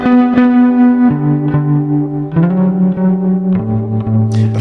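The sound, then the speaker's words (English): A driven electric guitar played through an octave pedal plays a slow line of sustained, gritty notes with a thick doubled lower octave, stepping down in pitch across four chords, loud and with no talking. “It has a bit yeah. of drive on this sound too”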